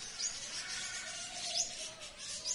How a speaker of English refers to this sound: Preuss's Pets is alive with the sound of animals.